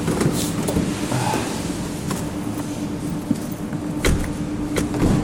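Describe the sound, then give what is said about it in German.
Rustling and handling noises as people get into a car on a cold day, with several sharp thumps and knocks, one like a car door shutting, over a steady low rumble of background noise. “Wir sagen, wir begeben uns mal ins warme Auto kurz.”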